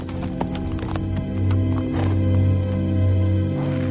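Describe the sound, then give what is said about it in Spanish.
Horses galloping across a meadow, ridden by Willow and Madmartigan in the film Willow: a rapid, uneven patter of many hoofbeats over a steady low droning tone, with a brief whinny-like cry near the start. No one speaks. “Willow y Madmartigan galopan por una pradera.”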